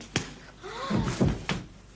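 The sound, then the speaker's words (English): Three dull, heavy thumps like punches landing, one early and two close together later, with a short strained vocal groan in between. “Go on then, thump me.”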